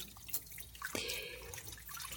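Running tap water splashes steadily with a hiss, broken by a few light clinks and a sharp clatter as a woman rinses and handles dishes after finishing her meal, with no talking.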